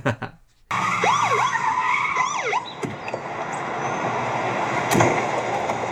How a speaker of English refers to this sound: Isn't it illegal to use your cop siren thing to harass your little brother?